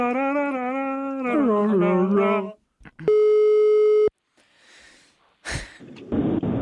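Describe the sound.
A single loud, steady telephone ringing tone sounds for about a second during an outgoing call, after voices, followed by soft rustling and more talking.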